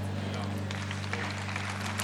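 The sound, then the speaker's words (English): A crowd claps in a steady patter of overlapping sharp hand claps across the whole clip, over a constant low electrical hum, with no clear talking on top. “Now, don't clap anymore, please, because I'm out of time.”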